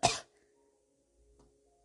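A man's single loud, harsh cough bursts out at the start, then fades into near silence with faint sustained background tones and a soft low thump later on.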